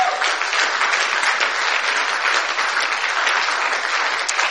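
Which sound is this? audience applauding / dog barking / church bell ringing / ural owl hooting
audience applauding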